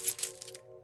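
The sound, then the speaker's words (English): A short metallic jingle of keys being handed over at a hotel, a few bright clinks over about half a second, then quiet with a faint steady hum underneath. “All right, here are your keys.”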